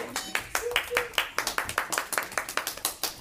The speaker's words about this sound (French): Oh, dis donc, quelle aisance Merci, on peut l'applaudir